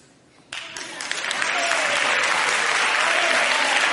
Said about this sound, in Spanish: es que es, que es para aplaudirla.